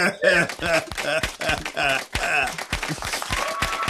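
audience clapping

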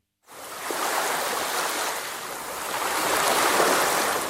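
ocean waves

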